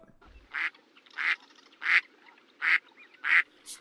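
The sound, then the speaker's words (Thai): A duck quacks five times in a steady, evenly spaced rhythm near people fishing, each quack a short nasal burst standing out clearly over a faint, quiet background with no talking. “สงสัยปลามันจะหนีเสียงของเป็ดแล้วว่ายมากินเหยื่อของเราเข้านะสิ”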